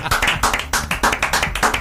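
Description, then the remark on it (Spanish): Applause in a steady, brisk rhythm, about four sharp claps per second, fairly loud and with no voices over it. “este aplauso es para vos, amigo.”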